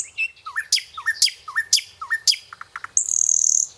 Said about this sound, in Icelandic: Og þetta er næturgalinn. Hann náðist á mynd á Stokkseri í april og hefur aldrei sérst jafn snemma vors hér. Næturgalinn er mjög sjálfséður farfugl á Íslandi, sérstaklega á vorin.